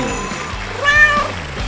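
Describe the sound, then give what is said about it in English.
A single clear meow from Bucky, the cat starring in the show Life with Bucky, rising and falling over about half a second, fairly loud above a steady low hum of background noise. “Now the star of Life with Bucky, her royal buckiness, the world's most amazing cat, Bucky.”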